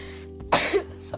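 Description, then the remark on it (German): A single sneeze bursts out, sharp and breathy, lasting about a quarter second over a low steady background hum, with a faint second puff just after. “Gesundheit.”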